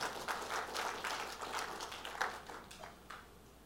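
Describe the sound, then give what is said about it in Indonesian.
An audience applauds steadily for a few seconds, a dense wash of many hands clapping at once that thins out slightly toward the end. No one speaks over it. “Tepuk tangannya nggak usah tanggung-tanggung.”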